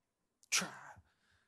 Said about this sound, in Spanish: Que en el COVID estornudar era prohibido.